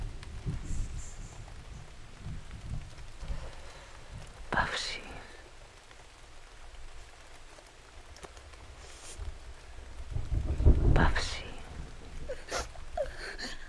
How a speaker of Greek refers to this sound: Η βροχή δυνάμωνε.